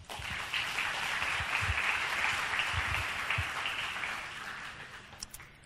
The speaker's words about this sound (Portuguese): peço uma salva de palmas.